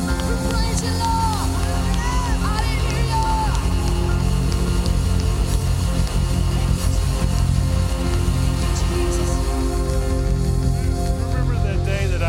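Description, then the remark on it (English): An audience roaring in praise to the Lord: a dense, steady wall of many voices shouting and cheering together, loud and unbroken for about twelve seconds, with individual yells rising out of the mass. “the Lord a roar of praise in this place.”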